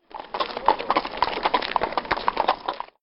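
Horse hooves clip-clop in a quick, steady rhythm for about three seconds, fairly loud, with no voices over them, as a man gets on his horses and sets off.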